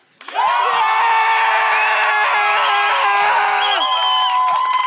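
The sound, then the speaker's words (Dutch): A loud audience suddenly erupts into sustained cheering and shouting, many voices whooping together, with clapping mixed into the roar and no pause for nearly five seconds, applauding to vote for a contestant. “Publiek, en jullie mogen voor eender wie applaudisseren. Laat jullie eens even horen.”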